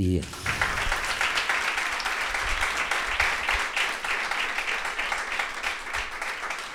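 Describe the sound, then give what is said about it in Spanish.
Sustained applause from a concert audience, sent to David Burgi, a guitarist of a band who could not attend: a dense steady wash of many hands clapping at an even, fairly loud level throughout, with faint voices mixed in underneath. “Voy a empezar eh, por precisamente el que no está, que es David Burgi, que por, por cositas médicas y así no puede estar con nosotros este verano y que desde aquí le mandamos un besazo y este aplauso.”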